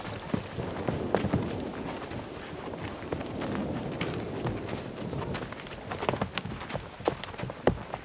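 Hooves of four horses on a horseback trek clip-clop in an uneven, steady stream of knocks as they walk together outdoors, with a soft rush of wind and no talking.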